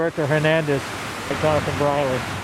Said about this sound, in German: Im Rauschen des herabfallenden Wassers sucht der Fotograf den Rand des dunklen Gedenkbeckens ab.